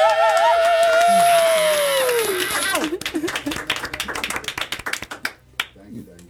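A sustained, wavering vocal-like tone fades out, then audience applause breaks in: a loose burst of sharp claps that thins into scattered, uneven claps before trailing off.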